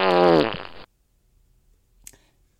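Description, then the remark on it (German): A loud, buzzy fart rasps for nearly a second, its pitch sagging as it fades, followed by near silence and a faint brief noise shortly after. “Jetzt hör doch mal auf mit der Rumfurzerei!”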